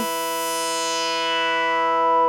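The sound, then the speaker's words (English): A single buzzy synthesizer note, with its envelope sustain turned lower, holds steadily at even loudness while its bright upper edge slowly closes down, behaving like a filter cutoff sweeping lower. No voices, just the tone on its own. “you can hear it now behaves like a cutoff.”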